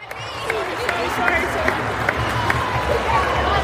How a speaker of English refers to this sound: So we're here at the England Nigeria game for the Three Lions podcast. Um, gets bit pretty noisy here, so um, I'll tell you more.